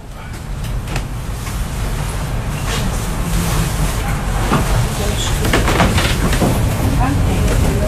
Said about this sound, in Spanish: con esos crujidos típicos. Sí. ¿Cómo- ¿Cómo no se va a caer esto? ¿Dónde estamos acá? Este es el ascensor del Cerro Artillería Perfecto. en Valparaíso. El ascensor que llega al, al Paseo 21 de Mayo, creo que es el que está arriba.